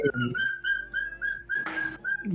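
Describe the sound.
A pet parakeet chirps in a rapid, steady series of short high-pitched notes, clear, with a brief noisy rustle midway and faint voices at the start and end.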